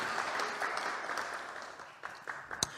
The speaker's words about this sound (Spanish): Denle un aplauso al Señor más fuerte si quiere. Él es muy bueno con nosotros.